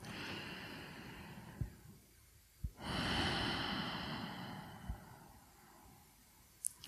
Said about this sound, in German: das allererste, was du wirklich tust, ist bewusst atmen, durchatmen, dir einen Atemzug zu nehmen